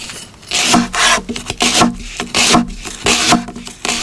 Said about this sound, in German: Ich finde es ein schönes Geräusch, weil ich verbinde es eben auch mit was Schönem. Äh, kochen mag ich sehr gern. Das war so Gemüseschnipseln. Ich hätte jetzt auch an irgendwas schneiden gedacht,